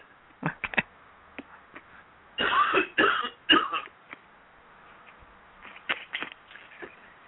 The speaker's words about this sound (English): Excuse me, I'm going to have, to have to cough again.